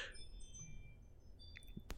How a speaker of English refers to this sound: It's my ring uh, doorbell. Whenever uh, it gets a uh, motion at the front door, it goes.